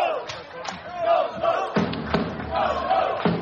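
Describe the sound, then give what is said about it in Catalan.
A large crowd at a Baxi Manresa basketball game shouts the chant "Jou, Jou" in unison for the player Jou, voices swelling and repeating in rough rhythmic bursts over a steady roar of background cheering. “Entrevisten a Jou a la tele, m'imagino, i d'aquí el crit de Jou Jou.”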